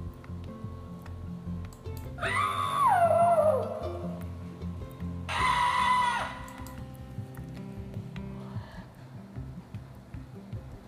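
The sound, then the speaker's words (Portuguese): A person with a sheet over their head makes spooky ghost noises to scare children away: a wavering wail that slides downward in pitch, then a steadier held hoot, and a faint third moan later, all over a low, murmuring background. “Quando queria que a criançada fosse embora, ele ia no quarto colocava um lençol na cabeça e saía de lá fazendo sons do além.”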